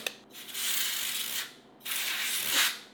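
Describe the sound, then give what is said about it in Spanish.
Two loud hissing blasts from a can of compressed air sprayed into a keyboard to remove dust, each lasting about a second with a brief pause between, no voices. “Ahora si deseas remover el polvo, puedes utilizar esta lata de aire comprimido.”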